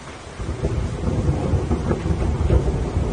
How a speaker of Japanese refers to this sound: お堂の扉を開けて中に入るなり、突然の大雨と雷鳴が轟きました。